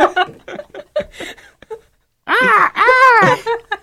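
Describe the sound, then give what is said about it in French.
Brief speech, a short pause, then a person loudly imitates an eerie cry resembling a crow's call: a wavering, wailing call in two rising-and-falling swoops. “Ça s'apparente de cri d'une corneille.”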